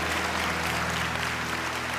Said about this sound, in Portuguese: E a igreja do Senhor diga amém e dê uma salva de palmas bem forte, bem forte.